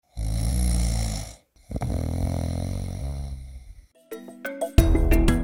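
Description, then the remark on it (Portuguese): Two loud snores, a rough rasping one and then a longer rattling one, followed by a brief bright musical jingle with stepping chime-like notes. “O sensor dificilmente conseguirá distinguir quem está roncando dentro do quarto.”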